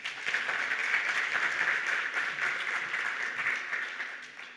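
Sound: audience hand clapping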